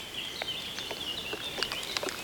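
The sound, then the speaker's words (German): Trees crackling, recorded by wiring the trees and slowed down from ultrasound to be audible: irregular, sharp little clicks and pops scattered over a steady thin high-pitched hiss, growing denser toward the end, with no voices. “Nein, nicht die Vögel, die Bäume. Das Knacken kommt von ihnen.”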